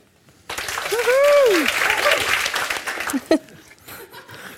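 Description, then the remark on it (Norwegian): Audience applause breaks out suddenly and holds steady as a dense wash of clapping, with cheering voices and a whoop rising above it before the clapping thins out, at the live show Noen må gå on Ole Bull scene in Bergen. “Jeg styrer dette veldig fint, syns jeg, med applausen.”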